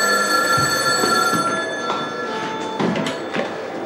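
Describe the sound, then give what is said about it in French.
A telephone rings with a steady, bright metallic bell tone that carries on throughout, fairly loud, with a few soft knocks and clunks in the background and no talking, in a scene from the film Le Petit Criminel. “Et puis un jour, le téléphone sonne et c'est une fille qui dit euh, Est-ce que je pourrais parler à, donc à la mère”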